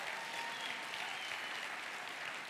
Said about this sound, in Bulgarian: О, ако ръкопляскаш, ръкопляскай, като че наистина вярваш.